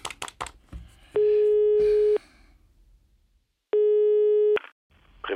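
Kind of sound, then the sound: signal or alarm, telephone call tones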